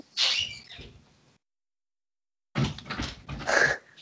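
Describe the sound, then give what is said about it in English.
A creaky door groans open with a drawn-out squeal, falls silent for about a second, then creaks again in two strained, wavering bursts, fairly loud with no one talking. “Creaky door.”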